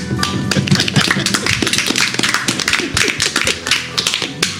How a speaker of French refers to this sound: Ah, les applaudissements. Je vous avais dit que mon ego commençait à disparaître, n'en rajoutez pas, merci.